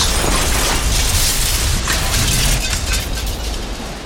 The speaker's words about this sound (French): Alors, avec toute la dextérité qu'on lui connaît, Henri Guillaumet s'apprête à poser son monomoteur au bord du lac. Les roues touchent le sol et se bloquent. L'avion capote.